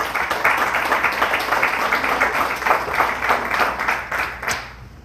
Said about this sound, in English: Amen, church. God is good. Give them a round of applause, church.